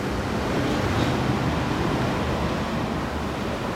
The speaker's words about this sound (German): Das sind ja wirklich gewaltige Wassermassen, die wir da im Hintergrund hören.